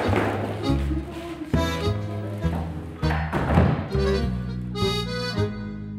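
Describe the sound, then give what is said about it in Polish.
Old historic wooden parquet floorboards creak and groan under slow footsteps, a steady series of drawn-out, tonal squeaks with soft thuds, with no voices. “Jakbym miała powiedzieć, jaki dźwięk charakteryzuje nas, to bym powiedziała, że to skrzypienie podłogi.”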